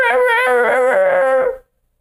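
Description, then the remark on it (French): A dog whimpers and cries with joy in a long, high, wavering whine lasting about a second and a half, fairly loud, then breaks off into silence. “Il pleure des larmes.”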